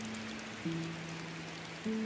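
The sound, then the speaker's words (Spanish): Steady rain of thick, heavy drops patters down in a forest as a storm arrives, a dense, even hiss, with low sustained droning tones that shift pitch underneath. No voices. “En eso, otro rayo surcó el cielo, soltando unas gruesas gotas por la lluvia que estaba por llegar.”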